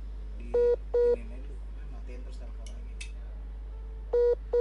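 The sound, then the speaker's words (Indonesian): Four short electronic telephone dialing tones as a call is redialed after the connection dropped, two in quick succession near the start and two more close together at the end, each a clear dual-pitch beep over a low background hum. “Oke, sambungan kita terputus. Coba kita telepon lagi ya.”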